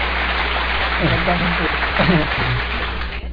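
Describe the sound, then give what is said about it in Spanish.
A steady burst of audience applause for the finger jokes on the Radio Anime program, a dense, even patter of clapping that lasts about three seconds, with a few faint voices mixed in partway through before it cuts off. “Aquí en, Radio Anime Un aplauso para, para los chistes de dedos.”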